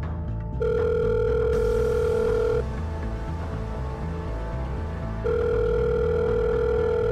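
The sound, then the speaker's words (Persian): Two long, steady ringback tones from a mobile phone on speakerphone calling the number written on a CD, each lasting about two seconds with a pause between, over a low background hum. Nobody speaks. “بعد از چند تا بوق اونور خط گوشی و یه نفر برداشت اما حرفی نزد”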